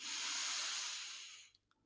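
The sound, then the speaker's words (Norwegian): A voice imitates heavy sleep breathing, not snoring: one long, airy exhale, fairly loud, that slowly fades over about a second and a half, followed by faint mouth clicks. “Så du hører andre som sover. Sover tungt. Ikke snorking, men mer sånn”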